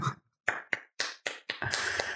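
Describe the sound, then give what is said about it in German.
A person claps their hands for all the listeners: a few sharp separate claps at first, then quicker, denser clapping that runs together into a steady burst of applause from one pair of hands. “Also ich klatsche jetzt für alle unsere Zuhörer, das hast du sehr schön geschrieben.”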